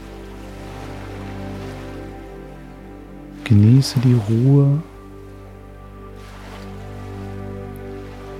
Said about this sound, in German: Höre das Meeresrauschen.